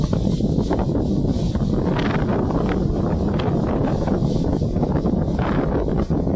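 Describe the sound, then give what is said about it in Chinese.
Strong wind roars steadily, buffeting with a heavy low rumble, while tree leaves rustle and hiss in quick, uneven bursts throughout, on a summer morning that is neither rainy nor overcast; no voices, just a constant loud, windswept texture. “对，还有树叶哗哗的声音。”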